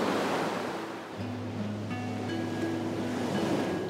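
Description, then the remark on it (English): Steady roaring surf of ocean waves with white crests breaking and rolling over each other onto a wide, long sandy beach, a broad continuous rush with no distinct individual breaks, accompanied by faint low tonal hums and wind in the background. “Hear the roaring sound of the ocean, waves breaking with white crests rolling gently over each other.”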